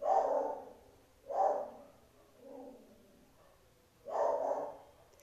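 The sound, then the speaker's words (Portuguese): A dog barks repeatedly, loud full-bodied barks spaced a second or so apart with one softer bark between, keeps going without anyone speaking. “Não dá pra ficar Inferno, o cachorro não para de latir.”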